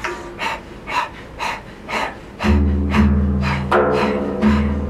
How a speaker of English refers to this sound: And if you're new to the breath, I invite you to do this. Open the mouth, stick out the tongue, and begin to pant rhythmically just like a dog.